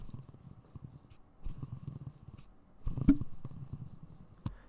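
A soft, low whirring rumble of a skateboard wheel being rolled by hand at a desk, spinning on smooth, quiet bearings, quiet and swelling slightly in a couple of pushes with faint clicks, no voices.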